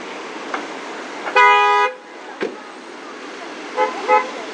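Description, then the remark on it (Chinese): A loud, steady car horn blares for about half a second amid a constant hum of road traffic at a road crossing with mixed motor and non-motor traffic, followed later by a couple of shorter, fainter honks. “刚才那一个刹车真的是吓我一跳，而且就还有汽车的鸣笛的声音，让我觉得会无比的刺耳。”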